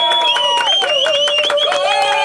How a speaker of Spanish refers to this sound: Más aplausos, por favor usted va a escuchar los aplausos durante toda la noche, no se preocupe.